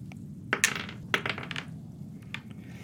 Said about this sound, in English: i need to roll some dice here, unfortunately.